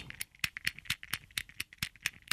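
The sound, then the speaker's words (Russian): A handheld antistress switch toy clicked rapidly and steadily in the hand during a live broadcast, about ten sharp clicks in a quick even rhythm, with no voices. “Это вот у меня в руке выключатель. Это вот для особо нервных людей.”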